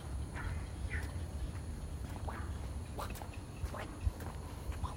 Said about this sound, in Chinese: 左边感觉是鸟的叫声，右边是青蛙的叫声，但是后面底噪又是蝉鸣。